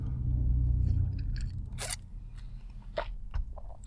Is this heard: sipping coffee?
yes